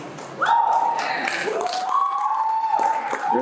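A room of filmmakers bursts into sustained applause after a brief quiet start, steady and loud throughout, with some whistle-like tones and voices mixed into the clapping.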